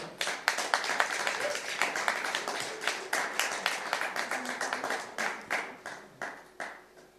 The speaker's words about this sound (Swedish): Ja, en stor fet applåd.